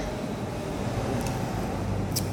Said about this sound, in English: Well, right now, there's a little more traffic going by, and this place has windows all around.